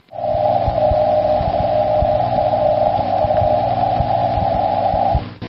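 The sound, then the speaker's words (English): A long delayed radio echo of amateur station DK6NP's Morse call sign, heard 46 seconds after transmission on 7 megahertz during a geomagnetic storm on November 27th: a steady, loud mid-pitched tone sustained for about five seconds over crackling, thumping shortwave static, with no voices. “Amateur Pete Brogl, DK6NP, reports hearing long delayed echoes on 7 megahertz during a geomagnetic storm on November 27th.”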